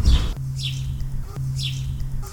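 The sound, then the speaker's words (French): Small birds chirp outdoors in quick, repeated bursts of high tweets over a steady low background hum, with no talking. “Ou les petits oiseaux, mais ça je trouvais ça mignon, donc on va les garder, les, petits oiseaux.”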